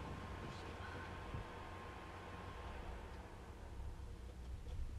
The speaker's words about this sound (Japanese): って、これ、大ダイソンの掃掃除機じゃないや。扇風機の音がうるさいはず。